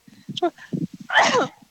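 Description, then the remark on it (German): A single loud sneeze bursts out sharply after some murmured speech, with a voice talking softly before it and trailing off after. “Stimmt. Gesundheit.”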